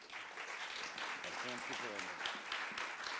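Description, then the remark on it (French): An audience claps steadily in a dense, even wash of applause lasting about three seconds, with a brief voice or cheer rising through the clapping midway. “On peut l'applaudir une deuxième fois.”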